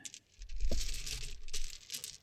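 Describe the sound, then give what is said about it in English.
Busy clicking and rattling of dice being shuffled and stirred around, continuous, with a brief sharper clack near the start, as fingers dig through a giant D&D dice bag looking for a D20. “I'm desperately digging in my giant bag for a D20.”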